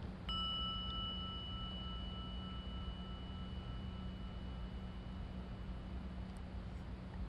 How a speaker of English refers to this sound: So here we go. Just listen to the sound of the gong.